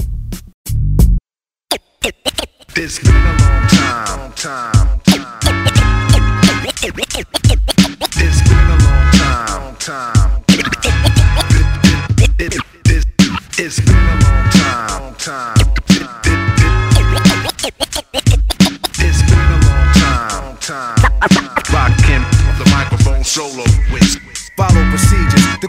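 A loud hip-hop beat with DJ scratching cutting back and forth over a steady, punchy rhythm and deep bass, starting after a brief stuttering pause; no one speaks.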